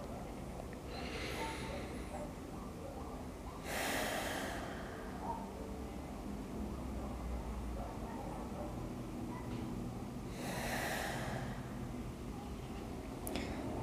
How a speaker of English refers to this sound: so let's breathe in for two deep breaths and just see how you feel see how your mind responds to this let's go